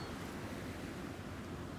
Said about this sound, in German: Es ist ein bewölkter Tag im Januar 1954. Ein kleines Fischerboot tanzt auf den Wellen des Ligurischen Meeres vor der Nordostküste Italiens.